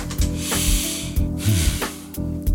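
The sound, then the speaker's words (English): A voice imitates the hiss of perfume being sprayed onto a worn T-shirt, with several loud, breathy, sustained bursts and short pauses between them. “I had to spray it with perfume and this thing.”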